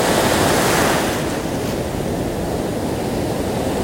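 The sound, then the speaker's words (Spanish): Ocean waves break steadily onto the shore in a dense, continuous roar of surf, fairly loud, with a slight swell easing off after the first second and no voices. “El día de hoy quiero compartirte este sonido. Este sonido de las olas que a lo largo de toda la historia ha existido.”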